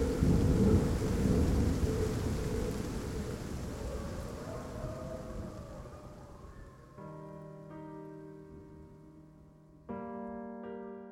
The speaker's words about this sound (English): And this is a good place to stop. In the rain. In the rain.